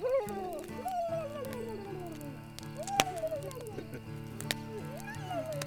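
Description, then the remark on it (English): A voice mimics a turkey's gobble with wavering, warbling cries rising and falling for several seconds, over a steady low humming tone in the background. “That's my turkey in the yonder tree. And the turkey went.”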